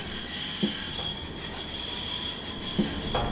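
A train arriving at a station platform reached by escalators, in Bonn, squeals its wheels with a sustained high-pitched metallic whine over steady rumbling rail noise, with two brief clanks punctuating it. Moderately loud, with no voices.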